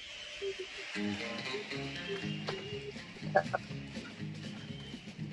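A country song plays steadily, with a bouncing low bass line and twangy picked notes moving in a regular rhythm, at moderate volume throughout.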